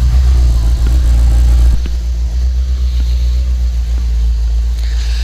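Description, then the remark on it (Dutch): A motorcycle engine rumbles loudly, a heavy low idle that drops in intensity after a couple of seconds, then keeps running steadily with a few faint clicks, as the motorcycle is ridden from a driveway inside. “Hij rijdt zelf eventjes de motor naar binnen.”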